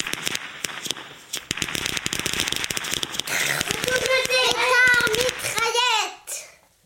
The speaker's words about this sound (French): c'étaient les pétards mitraillettes. Un assemblage d'une dizaine de pétards de taille modeste, mais qui étaient reliés entre eux par une mèche unique. Mèche qui assurait, euh, ou pas, là résidait tout le charme, une série d'explosions à rafale.